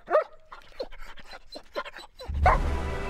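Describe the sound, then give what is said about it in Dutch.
A patrol dog gives a few sharp barks and panting yelps, with a burst of rough, hissing noise rising underneath toward the end. “En blaf, blaf.”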